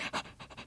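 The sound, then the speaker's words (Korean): A person imitates a dog panting beside them, with quick breathy huffs repeated in a steady rhythm, moderately loud, with no talking. “옆에서 이제 강아지가”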